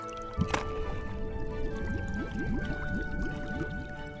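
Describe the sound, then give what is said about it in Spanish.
A sudden splash as Boris the bear leaps bravely into water that reaches only to his knees, followed by steady sloshing and bubbly wading sounds at moderate volume, with no voices. “Boris decidió que era tiempo de ser muy valiente y se lanzó al agua.”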